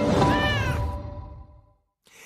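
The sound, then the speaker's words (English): A single drawn-out, loud cat meow, rising then falling in pitch before trailing off into a fading echo, followed by a short silence and a brief burst of noise. “Everything you'd expect, in other words, from a Christmas present from a cat named Bob.”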